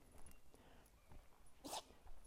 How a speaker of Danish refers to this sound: Det er min hund, der nyser, hvis I kan høre det i mikrofonen.